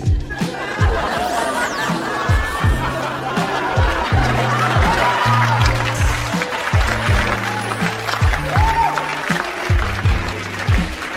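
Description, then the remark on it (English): An audience applauds in a dense, steady wash of clapping for about eleven seconds, mixed with laughter and crowd chatter, while low, blocky tones hum underneath. “An applause break over my infidelity.”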